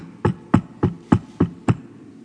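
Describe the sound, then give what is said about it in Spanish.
Six firm knocks, as if on a door, strike in a steady, evenly spaced rhythm. Each rap is sharp, with nothing else heard between them. “O hay que tocarles la puerta”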